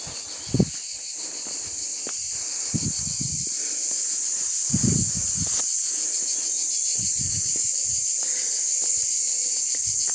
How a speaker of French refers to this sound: Les cigales, les entendre.